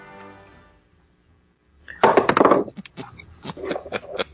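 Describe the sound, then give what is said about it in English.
A d20 die clatters hard onto a keyboard in a loud rattling burst, then bounces in a few sharp, irregular taps that gradually lighten. “It bounced off the keyboard.”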